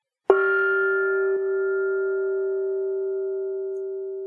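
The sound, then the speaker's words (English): A gong is struck once, loud, its deep metallic tone ringing on and barely fading for several seconds. A faint second tap sounds about a second in. No voices. “I'll do a Chinese proverb first. So cue the gong.”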